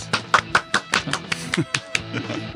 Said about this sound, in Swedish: En liten applåd.